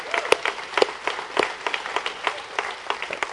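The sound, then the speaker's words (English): A church audience applauds the announcement of a newly hired pastor of student ministries, with dense, steady clapping for a few seconds, a handful of sharper individual claps standing out from the crowd's patter at moderate loudness. “So you should applaud that note.”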